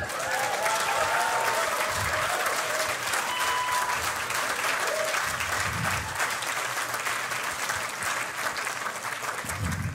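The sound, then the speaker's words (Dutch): A crowd applauds people aged 65 and over who have stood up, steadily for the full ten seconds, a dense, loud wash of clapping with a few scattered whistles or cheers riding on top and occasional low thumps underneath. “Zullen we deze mensen eens een applaus geven?”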